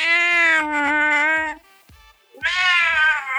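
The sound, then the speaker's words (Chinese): A cat lets out two long, loud, drawn-out meows, the first about a second and a half and the second starting after a short pause, each with a strained, wavering pitch. “刚讲你走开的，说几句话来听听。”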